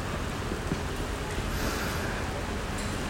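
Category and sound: nature, thunder rumbling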